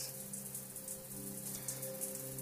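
Steady rain falls throughout, a continuous soft hiss dotted with brief brighter patters, while gentle sustained musical tones hum quietly underneath. No one speaks.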